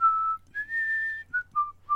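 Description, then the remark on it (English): Someone whistles a few bars of the Marseillaise, clear, with long held notes followed by short, lower phrases. There is no talking, only a faint low hum underneath. “stretched his long legs under the opposite seat, threw himself back, folded his arms, smiled like a man who had just thought of a good joke, and began to whistle the Marseillaise.”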